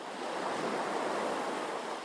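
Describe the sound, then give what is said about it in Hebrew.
Soft, steady wash of sea waves on a beach in the Kiryat Yam area of Israel, with almost no waves, a continuous hiss of surf with a faint breezy rumble, no voices, heard evenly throughout the short stretch. “זה נראה מאוד פסטורלי, ים כחול, שמיים כחולים, כמעט אין גלים, אבל רק כשמתקרבים רואים שהחול מלא מלא בזפת שחורה.”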